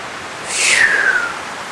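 A single soft gust of wind sweeps through trees, a breathy rustling hiss that swells and fades within about a second, carrying a faint falling whistle, with no voices.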